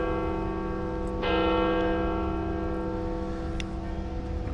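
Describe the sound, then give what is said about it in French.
Church bells ring out at St. Peter's Square in Rome, near the Sistine Chapel, with rich, sustained overlapping tones, a fresh loud strike joining partway through and the chime lingering over faint outdoor background noise, no one speaking. “Ça vous plaît C'est pas mal, hein Pile synchro avec les cloches, ouais.”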